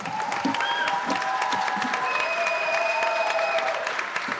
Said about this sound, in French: À la fin de cette première en Allemagne et en Europe, le public se lève pour applaudir. Certains essuient une larme.